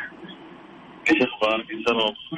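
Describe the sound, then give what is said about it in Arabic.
A caller's voice, spoken through headphones, comes over a thin, band-limited phone line, with short bursts of talk that sound echoey and robotic, as though processed through a poor connection. “بخير بس بس عندك عندك يعني صوت صدى وصار يعني كانك رجل آلي انت وين تكلمني من البلوتوث حق السيارة ولا كيف؟”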